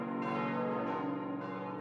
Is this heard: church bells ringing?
yes